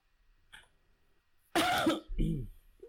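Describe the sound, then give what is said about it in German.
A single loud sneeze bursts out after a quiet stretch, a sharp explosive blast trailing into a short voiced breath, with no talking around it. “Gesundheit.”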